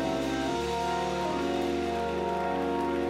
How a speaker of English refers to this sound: Clap those hands.